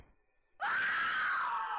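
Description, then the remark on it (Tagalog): Outside, at about 4 a.m. before dawn, after a brief near-silence, a woman lets out a loud, sustained, high-pitched scream that starts abruptly and holds steady to the end, with no talking. “Bigla akong napabalikwas nang may narinig akong babaeng tumitili ng malakas sa labas.”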